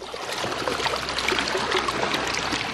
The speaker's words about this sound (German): Auch Sie hören hier die Vögel im Hintergrund, die Wellen, also das Plätschern des Wassers auf den Brioni-Inseln.